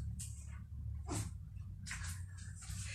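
A female cat in heat lets out several short, strained yowling meows at irregular intervals over a steady low background hum, while being picked up to be put on a bed.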